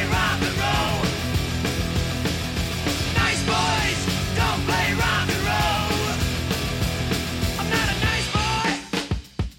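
Loud original hard rock recording by an Australian rock band, from its 1978 debut album, with dense distorted guitars, pounding drums and a raw, shouted male vocal, played at full intensity throughout before cutting off abruptly at the end.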